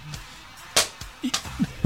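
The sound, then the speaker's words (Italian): Two sharp lashing cracks of a whip striking someone, about half a second apart, with a few softer slaps and rustles in between; no one speaks. “Mi frusta.”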